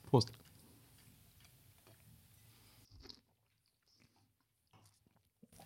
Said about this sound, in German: Ich schlürfe schon wieder, ne? Entschuldigung.